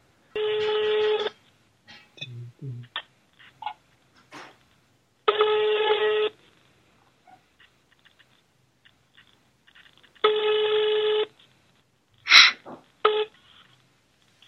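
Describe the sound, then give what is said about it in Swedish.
A phone call to a Swedish mobile number ringing on the line before it reaches a Telenor voicemail. Three buzzy ring tones of about a second each sound roughly five seconds apart, with faint clicks and small handling noises in between. “Nu ringer vi.”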